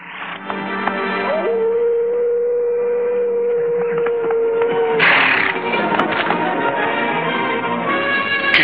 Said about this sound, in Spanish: No lo sé, pareció un aullido de lobo.